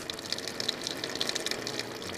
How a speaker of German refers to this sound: Lisa Schleicher ist eine der Brunnenfrauen und sie dreht für uns jetzt mal das Wasser auf.